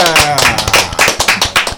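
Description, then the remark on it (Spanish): Loud applause of steady, rhythmic clapping, about four claps a second, with voices murmuring underneath at the start. “Un aplauso”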